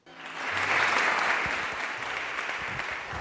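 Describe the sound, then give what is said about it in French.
Sustained, dense applause from a sizable crowd at the opening of an exhibition about Serge and Beate Klarsfeld at the Topography of Terror in Berlin, steady and fairly loud from start to finish with no voices standing out. “C'est sous des applaudissements nourris que Beate et Serge Klersfeld ont inauguré l'exposition que leur consacre la capitale allemande.”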